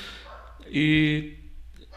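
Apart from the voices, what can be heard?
dog barking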